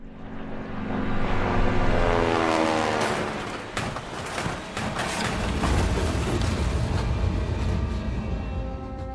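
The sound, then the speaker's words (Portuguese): A military airplane engine roars loudly and steadily, its droning pitch shifting as it strains, with a rough sputtering burst partway through and no voices. The plane is over Guinea in May 1963, one wing hit and its engine threatening to break loose. “Eu percebi que uma das minhas asas foi chumbada e o, o motor do avião ameaçar saltar fora.”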